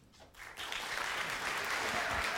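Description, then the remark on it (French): An audience breaks into applause in answer to a question put to them, the clapping building quickly after a brief moment of quiet into a steady, dense wash of many hands that holds for about two seconds. “Est-ce qu'il y a des gens par applaudissement qui n'ont aucune idée de ce qui est ce podcast”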